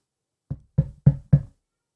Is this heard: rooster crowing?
no